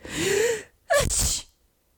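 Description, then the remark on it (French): A man sneezes once after taking off his opera glasses and leaning forward: a drawn-in breath builds for about half a second, then a sharp, loud burst explodes out and quickly fades into silence. “Il éternua comme vous voyez.”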